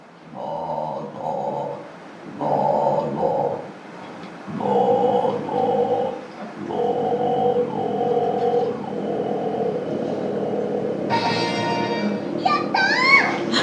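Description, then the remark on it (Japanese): A Canadian woman sings a series of sustained, deep, growling tones in short repeated phrases with brief pauses, the Guinness world record for the lowest sound made by a female, then her voice jumps to a few higher, wavering notes near the end. “It is the lowest sound that a female has ever made”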